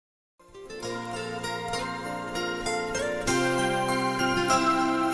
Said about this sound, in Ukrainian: Різдвяний передзвін звучить.